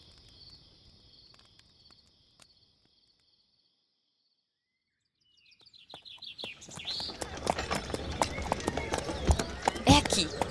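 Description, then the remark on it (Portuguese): Horses' hooves clip-clop in a quick, clattering rhythm that starts after a quiet pause and grows louder as riders arrive on horseback, with crickets chirping faintly at the very beginning. “Chegamos. Vamos amarrar os cavalos.”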